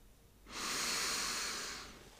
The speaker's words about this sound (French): Puis prends une grande inspiration